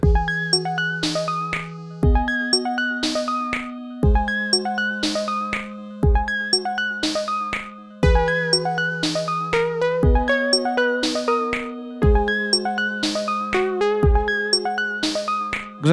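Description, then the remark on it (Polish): A bright electronic jingle plays on its own: bell-like synth plinks over steady bass notes that shift every couple of seconds, looping a cheerful melody for about sixteen seconds, loud. “Nie to czas na dżingiel.”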